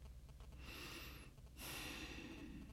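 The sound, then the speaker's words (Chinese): Eerie, heavy breathing: two drawn-out breaths, a hissing inhale followed by a longer, louder exhale, with a faint whistle in the first. No talking. “一种呼吸声，可怕的胡萝卜颜色的呼吸声，啊，在那里，在他的墙上，胡萝卜怪！”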